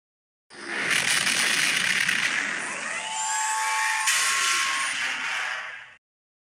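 The Millennium Falcon hyperdrive engaging: a sci-fi spaceship engine whine builds into a dense, roaring rush with rising and falling electronic tones sweeping through, sustained loudly for about five seconds before cutting off abruptly.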